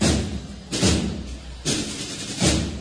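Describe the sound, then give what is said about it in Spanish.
A procession band of bugles and drums, a band, pounds out three heavy, booming drum beats at a steady pace over a constant low rumble as it moves off along a street; the bugles are not clearly distinguishable. “donde deja camino y nos dice adiós … para dar paso al tramo del paso de palio.”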